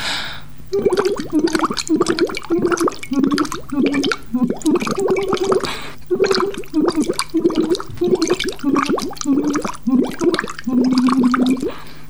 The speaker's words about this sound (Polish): Ostatnim ćwiczeniem z tej serii będzie fonowanie z rurką zanurzoną w wodzie, fonowanie z rurką wyjętą z wody i fonowanie bez rurki zupełnie.